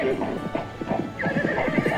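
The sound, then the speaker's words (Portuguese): A horse ridden by a cowherd gallops with quick, steady hoofbeats while a high whinny rises over the rhythm, fairly loud, with a voice murmuring faintly underneath. “montou no cavalo. E galopou para a casa do rei.”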